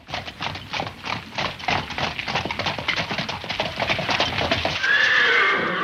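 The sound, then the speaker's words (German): Horse hooves clip-clop in a steady, rapid rhythm of a horse-drawn mail coach (Postkutsche) on the move, then a horse lets out a loud, high whinny near the end. “mit dem er dann ja auch selbst reisen konnte, anstatt mit der Postkutsche.”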